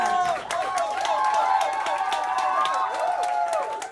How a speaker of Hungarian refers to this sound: Jár, jár a taps neked is.